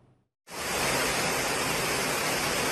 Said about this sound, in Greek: Σφοδρή κακοκαιρία πλήττει την Φραγκφούρτη με έντονε καταιγίδε. Δρόμοι έχουν μετατραπεί σε ποτάμια. Μέσα σε λίγες ώρες το αεροδρόμιο μετατρέπεται σε λίμνη the HR Weather Service reported precipitation of up to 60 liters per square meter.